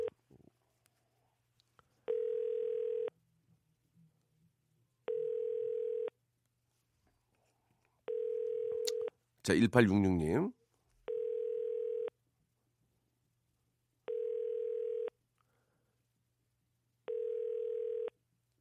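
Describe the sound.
A telephone ringback tone from a call being placed to a radio listener, which goes unanswered, repeats six times, each steady one-second burst followed by a couple of seconds of silence, with a brief spoken interjection breaking in partway through.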